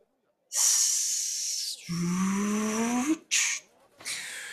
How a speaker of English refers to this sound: You notice the same mechanical arm. You probably hear a hiss.